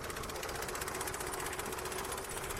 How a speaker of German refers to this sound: manövriert Bauer Michel Blanc vorsichtig seinen kleinen Traktor über das Feld